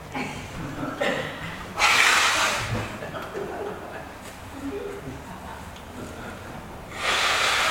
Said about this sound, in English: All right, I'm going to blow my nose. One moment, please.